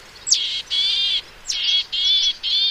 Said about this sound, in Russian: еще я выучила позывку буроголовой гаечки, в отличие от Москвы, там, где я живу, там много леса, и там буроголовых гаечек много, и вот у них эта позывка вообще не мелодичная.